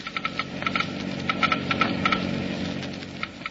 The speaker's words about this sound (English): First, let's listen to the Geiger counter slowly click off the low wear rate of new RPM.